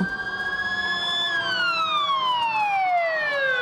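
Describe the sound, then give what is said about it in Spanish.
An emergency vehicle siren of arriving authorities wails loudly and steadily, growing louder, its pitch climbing briefly and then gliding downward as it continues. No one speaks. “Pero pronto empezaron a llegar las autoridades y el ruido de las sirenas iba aumentando.”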